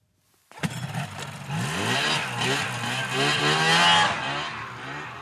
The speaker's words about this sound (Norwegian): Dette er lyden av påsketur for mange snøscooterentusiaster i Finnmark.